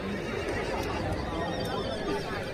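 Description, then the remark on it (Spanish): A horse neighs amid a dense, noisy outdoor background with steady murmuring from a crowd, everything blending into a continuous wash of sound, as young people of a small village bring wild horses down from the mountain to cut their manes and count them during a village festival. “que es el momento en el que los jóvenes de esta pequeña aldea bajan los caballos del monte para cortar las crines, para, para contabilizarlos y para hacer esa fiesta de comúnmente celebrar el tesoro que el pueblo tiene guardado en sus montes.”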